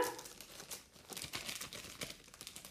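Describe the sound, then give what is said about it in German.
Crinkling and rustling of foil Astralglanz card booster packs being handled and torn open, a continuous stream of sharp crackly bursts with no talking. “Wenn es ein bisschen raschelt, das sind die Packs.”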